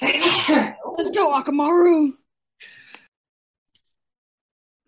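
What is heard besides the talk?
sneeze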